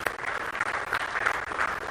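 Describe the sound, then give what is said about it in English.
A crowd applauds steadily, a dense wash of many hands clapping at an even, sustained level with no voices breaking through. “Let's give them a round of applause here.”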